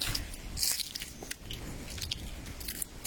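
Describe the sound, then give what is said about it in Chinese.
Footsteps of a person walking along a road crunch through dry fallen leaves in a steady walking rhythm, each step a brittle, crackling rustle, with no voices over the sound. “这个声音是我走在路上脚踩着落叶的声音。”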